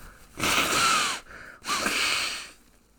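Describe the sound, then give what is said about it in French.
Someone blows their nose into two tissues in front of the microphone, twice in a row, two forceful, airy honks with a faint whistling squeak, without any talking. “Ok, ah c'est bon, je suis revenu devant mon micro, je me mouche maintenant.”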